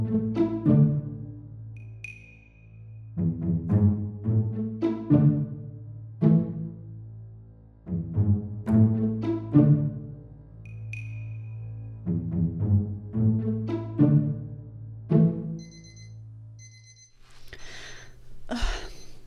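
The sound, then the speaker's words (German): An alarm clock rings with a repeating melodic chime, loud, its bright tones cycling in regular bursts for several seconds before a rustling shuffle at the end. “mein Wecker klingelt. Ein Geräusch, was ich seit Wochen, nein, Jahren nicht mehr gehört habe.”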